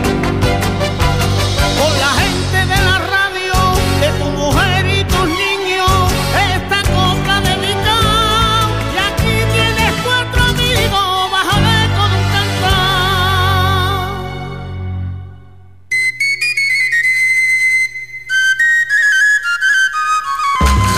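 A lively sevillanas song plays loudly with voices and instruments, then fades out, and after a brief pause a short, thinner musical passage follows.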